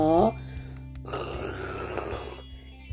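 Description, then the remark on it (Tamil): A person imitates a tiger's growl up close: a short voiced sound, then a rough, raspy, rumbling growl held for about a second and a half before it fades. “சிங்கத்துக்கு அடுத்து வேற யார் இப்படி உருமுவா புலி”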